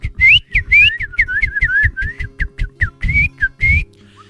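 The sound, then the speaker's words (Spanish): A person whistles an imitation of little birds singing: a quick run of short, chirpy, high-pitched warbles with rising and falling slides, fairly loud, with no talking. “Y se oían los pajaritos”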